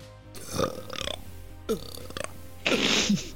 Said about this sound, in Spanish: Espera, me voy a tirar un eructo porque esta será.